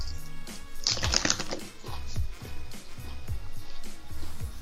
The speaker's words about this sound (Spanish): Deja de estar comiendo, güey, la gente aquí te escucha masticar. Perdón, pues es que me está viendo una papa.